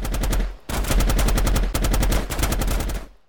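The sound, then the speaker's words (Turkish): Rapid bursts of automatic gunfire from an Uzi submachine gun with an iron stock, fired by a man running down a street during a shootout, rattling off fast, evenly spaced shots in three loud sustained volleys with brief pauses between them. “Sokağın aşağısındaki çöp konteynerinin yanında gizlenen Yunus Aksak demir dipçikli Uzi otomatik silahı montunun içinden çıkardı ve ateş ederek koşmaya başladı.”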